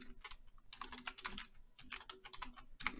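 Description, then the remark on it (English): Rapid, irregular clacking of clacky computer keyboard keys being typed on, fairly loud, with sharp clicks in uneven bursts and no voices. “Sorry, I got a little bit of a clacky keyboard.”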